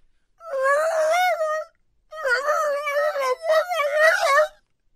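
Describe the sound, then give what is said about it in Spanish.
A dog howls and moans in long, wavering vocal bursts that rise and fall like speech, three drawn-out phrases with brief pauses between. “Y la pongan ese video, Luis, y que la gente diga qué estaba diciendo el perro.”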